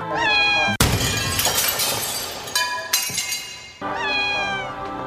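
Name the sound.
cat meowing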